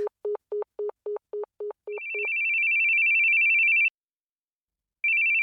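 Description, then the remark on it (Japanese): An unanswered phone rings continuously with an electronic ringtone: a quick run of short low beeps, then a long, steady high-pitched tone, a brief silence, and the tone starting again. Loud, no voices. “電話もこのまま、あいつが出るまでずっと鳴らし続けてやる。”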